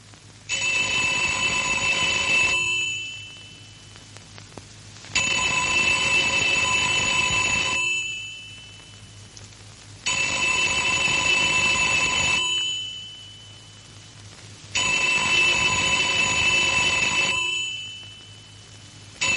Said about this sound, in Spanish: En casa, Sara está pensativa cuando oye el teléfono, pero no responde.